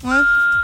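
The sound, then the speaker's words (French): A single answering machine beep, one steady electronic tone lasting about half a second, clear and fairly loud, with no talking over it. “Après le signal.”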